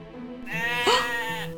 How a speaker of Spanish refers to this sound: ¿Y esto qué es? Está hablando como una oveja.